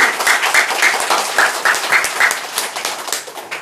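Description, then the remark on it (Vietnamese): A crowd breaks into a round of applause, a steady, dense patter of many hands clapping at once that keeps an even loudness and then eases slightly toward the end, with no voices over it. “cảm ơn những người bạn với tôi một tràng pháo tay”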